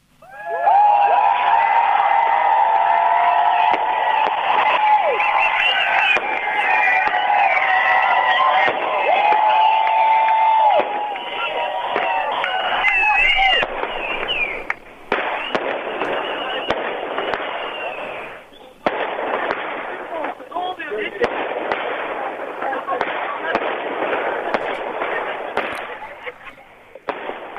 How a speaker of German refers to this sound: Und da die drin nicht sehen können, wie viele hier sind, lasst uns doch mal richtig laut sein, dass sie eine Vorstellung davon bekommen können, wie viele Leute sich heute hier versammelt haben.